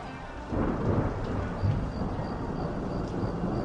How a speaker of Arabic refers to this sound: فما وضع يده حتى سمعت الرعد ثم جادت السماء بشيء من المطر